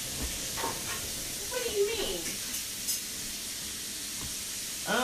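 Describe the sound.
Steady hot-oil sizzling of fish frying fills the background with a continuous bright crackling hiss, while voices murmur and chuckle faintly over it.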